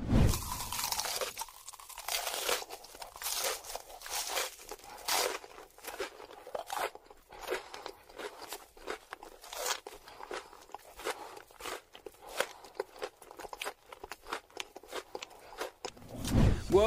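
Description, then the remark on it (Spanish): Someone eats crunchy fried cheese balls, with loud, crisp crunches and bites repeating irregularly throughout, each crackling burst bright and sharp, with no talking. “vamos a escuchar este ASMR de alguien que está comiendo cosas fritas, específicamente bolitas de queso.”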